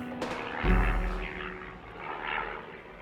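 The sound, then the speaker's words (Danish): A seaplane's propeller engine, from a seaplane carried aboard an oceanographic research ship, drones steadily, a buzzing hum that swells briefly early on and then holds at moderate loudness with a breathy rushing layer, no voices present. “Med et skib, havforskningsskib, med en helikopter på, og en vandflyve.”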